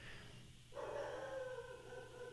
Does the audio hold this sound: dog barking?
yes